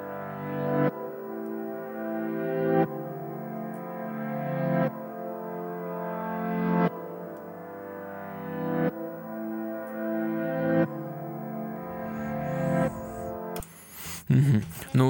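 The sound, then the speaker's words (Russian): A music intro of sustained, rich chords that swell and change about every two seconds in a slow, steady progression, cutting off near the end into a brief burst of noisy sound. “Ну, интро прикольное, аккорды классные, гармоника, так, звучание такое приятное.”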